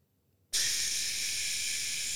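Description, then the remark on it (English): After half a second of silence, water from a sensor-activated bathroom sink faucet abruptly starts running, a steady, bright hissing rush that holds at an even level to the end. “It's the water.”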